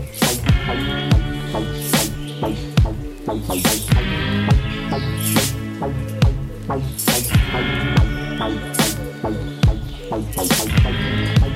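A song plays loudly and continuously, with sharp, regularly spaced drum hits over sustained, layered tones and a steady low bass, no talking over it.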